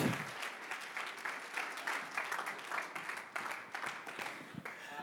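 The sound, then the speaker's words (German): A crowd applauds steadily to welcome a guest, dense overlapping claps sustained at an even level for several seconds, full, with no one speaking over it. “Allein das ist schon Applaus wert.”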